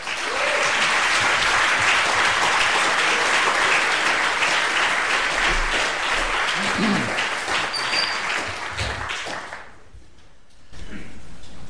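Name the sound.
audience round of applause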